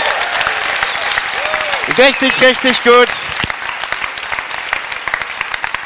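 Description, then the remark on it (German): A church audience at the Bremen campus applauds steadily throughout with dense clapping, welcoming the Bremerhaven and Pferden attendees, while a man speaks briefly and enthusiastically over it near the middle. “Und auch den Pferdener gilt einer fetter Applaus.”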